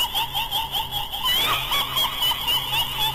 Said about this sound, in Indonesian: Terdengar suara cekikikan dan suara itu membuat telingaku bising seakan-akan tidak dapat mendengar apa-apa lagi.